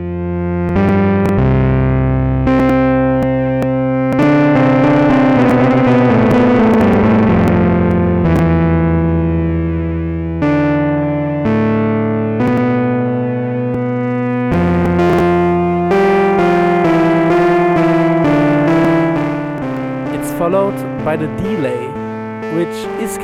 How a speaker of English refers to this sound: Firstly, there is the distortion, where you can adjust, drive and mix and type.